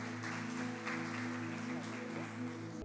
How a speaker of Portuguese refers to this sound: Vamos aplaudir Jesus, gente, porque é bênção demais.